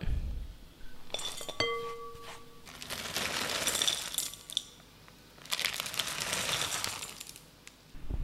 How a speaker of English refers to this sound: Okay, then I'm just gonna put both chocolates into a uh, glass bowl and you can weigh it out.